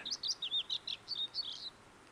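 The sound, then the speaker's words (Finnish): A bluethroat sings a quick series of bright, high chirping notes, about a dozen in rapid succession over two seconds, varied and twittering, with no voices over it. “Kilpisjärvellä tutkijat aikoinaan laskivat parhaiden koiraiden laulun sisältävän otteita yli 40 muun lintulajin laulusta.”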